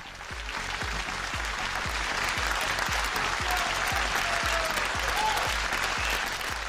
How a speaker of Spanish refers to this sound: Eh, realmente es un lujo y un placer recibir primero con un aplauso gigante